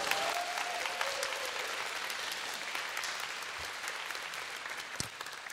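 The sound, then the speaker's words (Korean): Sustained applause from an audience fills the whole stretch, a dense crackle of many hands clapping at steady loudness, with no talking over it. “박수 한 씨, 네.”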